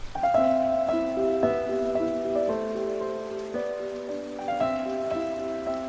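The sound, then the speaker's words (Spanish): Steady rain patters on roofs, an even hiss throughout, with soft sustained melodic notes changing every second or so over it. No one speaks. “La lluvia cantó su alegría en los tejados, se hundió en las blanduras de los sembrados, bajó cantando las acequias y los ríos”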